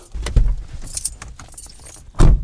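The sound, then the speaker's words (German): Keys jangle and clink as a car key is pulled from the ignition, with a louder thump near the start and another near the end, in a quiet car. “zieh mal den Schlüssel ab.”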